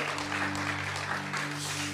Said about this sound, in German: Einen fetten Applaus für unsere Gäste heute.